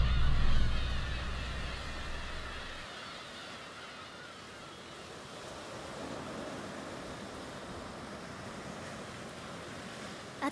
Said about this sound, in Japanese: 私ね私ここで聞く波の音が一番好きなの